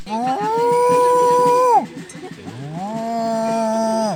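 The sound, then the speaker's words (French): A cow moos twice, each call a long, loud, drawn-out low bellow lasting over a second, separated by a short pause with faint background noise. “Et que serait cette ville sans son carnaval, son cri de la vache”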